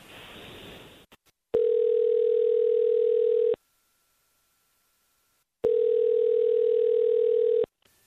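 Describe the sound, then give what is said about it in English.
An outgoing phone call to a woman rings out with two long, steady ringback tones separated by a silent pause, clear and fairly loud, following a brief burst of line noise at the start. “So we're going to call her and then we'll see what's up.”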